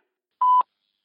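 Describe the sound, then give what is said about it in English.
A single short electronic beep, steady in pitch and clean, lasting about a fifth of a second, then silence. A voicemail tone on a phone after a call went to voicemail, sounding alone, with no one speaking. “David called Robert's phone. As it often did, it went to voicemail.”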